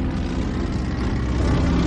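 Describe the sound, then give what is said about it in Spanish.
A light aircraft flying over an island, above a village, drones steadily, a constant low, rumbling hum with a broad buzzing edge that holds an even loudness throughout, with no voices. “Es el 7 de octubre de 1942 cuando una avioneta sobrevuela la isla. Surca el cielo por encima del pueblo, desde donde Heito, Marcial y un niño rubio de ojos claros lo observan con atención.”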